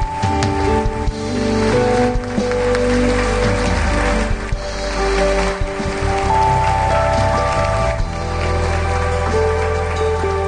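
A church audience applauds to glorify the Lord, loud and dense, a steady crackling wash of clapping that lasts throughout while sustained musical notes hold underneath.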